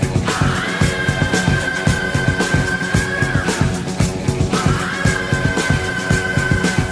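A loud hard rock song plays up close, with pounding, driving drums and dense distorted guitars, and a high sustained wailing note soars over the band twice.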